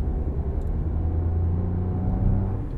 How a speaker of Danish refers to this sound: Vi er på vej ned på den fynske motorvej. Lige om lidt rammer vi en strækning, der får det til at kippe i de fleste bilister.